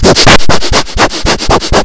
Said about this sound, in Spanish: no no no, yo, no puedo ser mejor porque respiro mucho en el micrófono no tú no respiras casi por el micrófono claro que sí